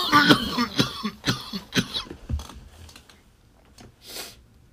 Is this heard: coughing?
yes